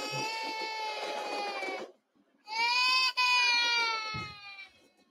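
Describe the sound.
Two long, loud, drawn-out wails of exaggerated crying, like a voice hamming up sobs, separated by a brief pause, with no other speech.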